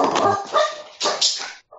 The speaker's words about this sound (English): oh, dogs.